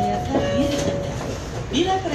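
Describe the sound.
A steady low rumble fills the inside of a moving KRL commuter train, with a faint whining hum on top and muffled voices murmuring underneath throughout.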